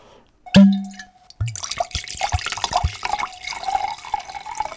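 A sharp thump, then cherry juice splashes and gurgles steadily into a resealable plastic bag, a continuous pour with small crinkles and no one talking.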